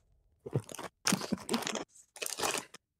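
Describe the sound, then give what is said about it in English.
Loud, crackly crinkling of a snack bag mixed with crunchy chewing, coming in three bursts with brief pauses between them and no talking. “Who's whose snack bag am I hearing?”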